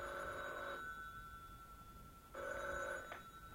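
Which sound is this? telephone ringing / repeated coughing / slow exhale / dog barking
telephone ringing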